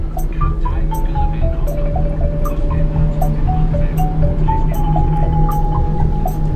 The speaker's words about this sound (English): I'm now on the boat to Denmark, going to Copenhagen.